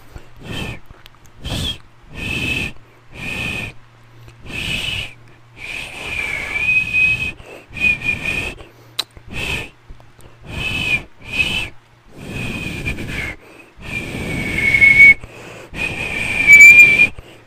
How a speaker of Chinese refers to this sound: 我们大概花了十五分钟在陪我练习吹口哨。我告诉你，我成功了。